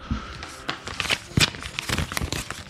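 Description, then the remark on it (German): The glossy coated paper of a TV guide magazine rustles and crinkles in a string of irregular, crisp crackling bursts, some sharper than others, with no voices over it. “weil dieses Papier auch so beschichtet ist, klingt es einfach auch nicht richtig”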